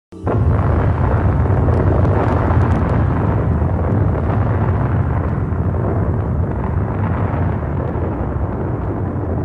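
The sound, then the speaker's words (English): A sudden, massive boom, an explosion or thunder ending a song, erupts and then rolls on as a deep, sustained rumble, loud and dense for several seconds, with no voices. “It ends with an explosion. Well, they say explosion or thunder.”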